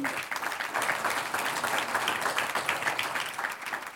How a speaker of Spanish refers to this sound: ¿Cuántos dicen gloria a Dios? Un aplauso al Señor.